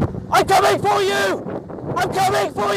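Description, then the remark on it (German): A man speaks loudly over steady wind buffeting the microphone and the low, continuous drone of the motor of the small fishing boat he is aboard, heading for an island. “Er spricht gegen den Wind an und gegen den Motorlärm und sagt, äh, Hello Snakes und so, Hallo Schlangen, wir kommen.”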